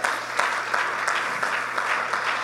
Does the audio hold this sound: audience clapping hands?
yes